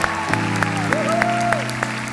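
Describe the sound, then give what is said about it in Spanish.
Steady audience applause for the man who directs a singing group, a dense wash of many hands clapping at once, sustained at an even, fairly loud level with a low tonal hum running underneath. “Un aplauso”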